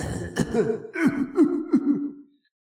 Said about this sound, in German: Und was euch auch auffällt, ihr hört Husten.